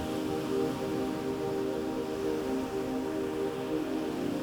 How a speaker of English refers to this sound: Listen, you can hear water falling not from the cup of tea, not from the ocean waves. It's a gushing, flowing sound.